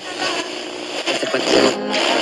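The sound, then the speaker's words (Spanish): A radio dial being turned, with a steady wash of hissing static that shifts and warbles as stations slide by, fairly loud, with no voices. “O ponemos eh, dial de la radio moviéndose.”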